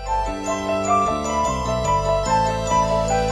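Instrumental music plays: a bright, bell-like keyboard figure repeats in a steady looping pattern over shifting low bass notes, clear and even in volume, with no voices.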